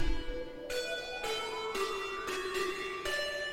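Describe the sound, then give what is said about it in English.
A basic monophonic synthesizer keyboard line plays one bright, buzzy note at a time, with about six sustained notes stepping along at an even pace. It sounds clear and upfront, with no voices. “Keyboards, listen to this keyboard right here.”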